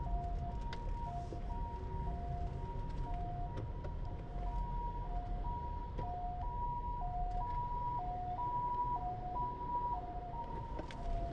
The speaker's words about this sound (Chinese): 哦，对不起，因为有救护车来，先让我我顿呆了一下，因为要先让救护车经过。